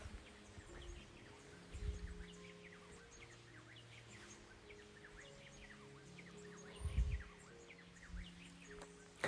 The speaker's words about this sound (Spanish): Ahora los pajaritos que a lo lejos cantan